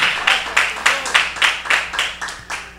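An audience clapping together for the Lord in a steady, even rhythm, about two claps per second, each a loud crisp burst of many hands, with no one speaking.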